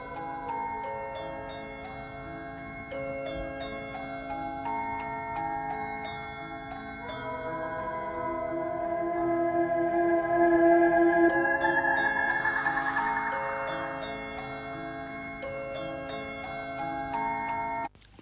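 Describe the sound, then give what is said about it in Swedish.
A delicate music box or glockenspiel chime from a horror film plays a slow, tinkling melody of bright plucked notes, swelling slightly in the middle with a shimmering wash before settling back, with no voices present. “Och den är ju klassiskt också, för det vi hör här är liksom någon slags klockspel eller slash speldosa”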